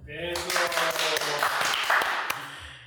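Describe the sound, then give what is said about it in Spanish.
An audience breaks into steady applause for an invited guest on a programme, about two and a half seconds, a dense wash of clapping with a few sharper claps standing out and a voice briefly audible underneath at the start. “Primero que nada, vamos a darle un fuerte aplauso a nuestro invitado,”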